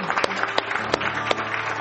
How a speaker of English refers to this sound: Oh, church, we got to give him a hand clap today for how awesome Jesus is. We love you, Jesus. We love you.